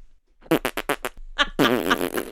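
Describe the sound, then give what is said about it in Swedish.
A voice imitates a man farting while sitting at a dinner table: a few short sputtering pops, a brief pause, then a longer, loud, buzzing raspberry that trails off. “och släpper sig.”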